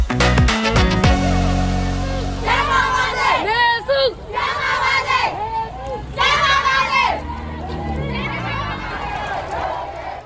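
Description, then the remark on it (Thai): A large street protest crowd of young people in Myanmar chants loudly in unison, voices rising and falling in repeated rhythmic bursts, following a brief musical sting at the start. The protests followed the military coup of 1 February. “นั่นก็คือเสียงของกลุ่มคนรุ่นใหม่ที่ออกมารวมตัวประท้วงกันตามท้องถนนในเมียนมากันหลายๆเมืองใหญ่เลยนะคะหลังจากที่เกิดรัฐประหารเมื่อหนึ่งกุมภาพันธ์นะคะ”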